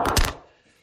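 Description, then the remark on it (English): A single dull thunk of a phone dropping onto a hard surface, fairly loud, with a short rattle that quickly fades to silence. “that was the phone falling down.”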